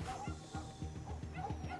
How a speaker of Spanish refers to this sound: Mire, ahí va la perrita.